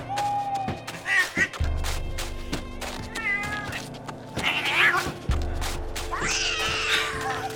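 A cat yowls loudly several times in harsh, drawn-out wails over about seven seconds, with low rumbling and scattered thumps in the background and no talking.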